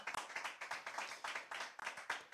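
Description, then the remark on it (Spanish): A church audience applauds the Lord during a morning service, many hands clapping in a dense, steady burst with rhythmic pulses, loud and sustained throughout with no voices over it. “Si usted lo cree, denle un aplauso fuerte al Señor en esta mañana.”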